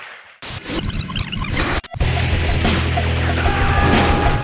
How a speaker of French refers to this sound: Donc on, lance les applaudissements, sous vos applaudissements